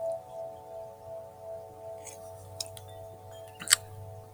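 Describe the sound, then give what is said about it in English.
Outdoor chimes ring with several steady, overlapping tones that hum and linger through the whole moment, while a few faint clicks and ticks sound over them. No one speaks. “One thing I like about these chimes, the outdoor chimes, is that they uh, the tone lingers.”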